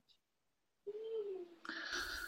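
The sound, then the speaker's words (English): A baby girl who has just woken up fusses from the room next door: a drawn-out, wavering whimper that rises into a higher, strained cry near the end. It is muffled and fairly quiet, with no talking. “I can hear actually next door the baby's woken up, so I think I need to go and um, see if she needs some help.”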